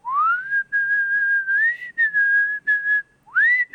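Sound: person whistling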